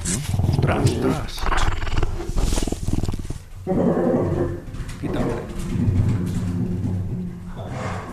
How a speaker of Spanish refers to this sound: una lince, en este caso Usme, y gruña al cachorro porque el cachorrillo está acercándose al cacharro